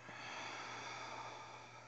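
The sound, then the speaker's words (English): A long, steady breath drawn in through the nose, an airy hiss lasting about two seconds with no talking. “Third deep breath, breathing in, breathing out.”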